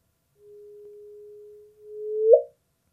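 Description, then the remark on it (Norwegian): A sonified gravitational-wave chirp from the first gravitational wave ever heard: a steady low pure tone holds for over a second, pauses briefly, then swells and sweeps sharply upward in pitch into a short bright chirp that cuts off abruptly. No voices. “På den første så virker det som vi har en mørkere tone og en, en kortere tone før det sier stopp.”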